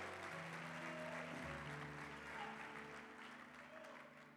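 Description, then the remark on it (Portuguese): A church audience claps and applauds to the Lord in worship, a steady, dense wash of hand claps, with a sustained low musical tone and chord underneath that shifts partway through. “Dê um brado ao Senhor e aplaudam mais uma vez e adore.”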